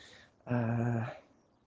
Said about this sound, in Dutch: er komt nu een hond aan